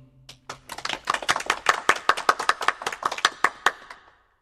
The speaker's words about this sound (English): Everyone applauded when the song was finished.